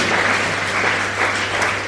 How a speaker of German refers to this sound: Ja, das ist ein Applaus wert und sie macht das ganz großartig.